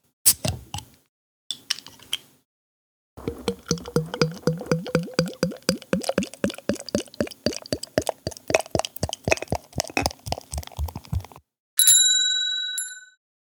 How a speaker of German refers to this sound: Und das, und mein Telefon klingelt und da muss ich rangehen.